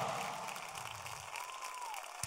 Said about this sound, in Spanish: Dale un mejor aplauso de ahí al Señor.